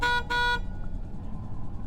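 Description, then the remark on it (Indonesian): A motorcycle horn, honked to greet a man, sounds twice in quick succession, a short beep then a slightly longer one, loud, followed by a low engine rumble idling underneath. “Sesekali, Abi coba menyapa laki-laki itu dengan membunyikan klakson motornya.”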